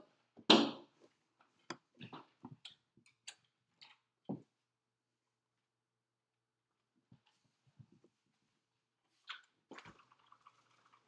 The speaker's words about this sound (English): Sorry about that. Just opening the door.